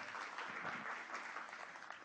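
A crowd applauds, a dense, steady wash of many hands clapping at even loudness for about two seconds, with no voices over it.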